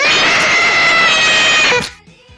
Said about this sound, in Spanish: Se me ha roto, creo. Pareces un mamut. Ah, ¿Tú sabes que esto se le llama matasuegras? ¿Por qué se le llama matasuegras?